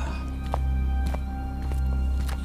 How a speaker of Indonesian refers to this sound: ngedenger kayak ada suara langkah kaki dari arah turun.